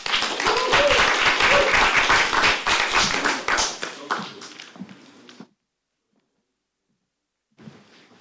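An audience claps loudly in a dense burst of applause for a historian being introduced before his talk, then it thins out and fades into silence before a brief faint rustle at the end.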